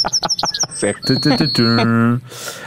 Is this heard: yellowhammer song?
yes